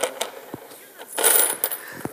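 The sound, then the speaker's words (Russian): Small metal change coins clink and jingle, a few sharp taps followed by a brighter rattling flurry in the middle as they are handled, then more scattered clicks, with faint voices. “Железная какая-нибудь есть мелочь?”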